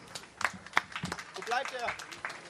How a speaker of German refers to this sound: Applaus.